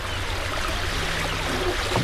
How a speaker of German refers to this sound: Wir steigen in eines der offenen Boote, um das grachtendurchzogene Venedig des Nordens aus der Wasserperspektive zu entdecken.